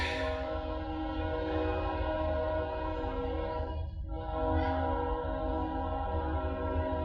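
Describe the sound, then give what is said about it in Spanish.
A passing train blares a long, steady horn over a deep rumble of rolling wheels, the loud blast holding for several seconds with only a brief dip partway through. “Bueno, es el tren, yo no lo puedo parar.”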